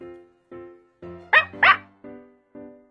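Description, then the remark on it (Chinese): A dog named Maokou barks seven times in a steady rhythm, about twice a second, as if in encouragement. Most barks are short, tonal yelps, while two in the middle come out louder and sharper. “猫扣的叫声像是在鼓励他。”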